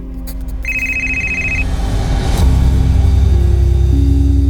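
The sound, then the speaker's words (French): A telephone rings with a steady electronic tone, clear, over a low rumbling background hum that swells partway through. No one speaks. “muni d'un crayon à papier, elle griffonne quelques annotations sur les pages quand son téléphone sonne.”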